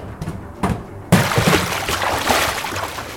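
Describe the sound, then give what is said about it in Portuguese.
A few soft thuds give way to a sudden loud splash, then a steady churning wash of water, as a load of barrels is knocked over on a pier and rolls into the sea. “o Linus tropeça e faz rolar uma porrada de barris no mar”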